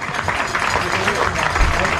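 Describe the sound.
A steady wash of crowd applause, dense and continuous at moderate loudness, with a murmur of voices mixed into the clapping throughout.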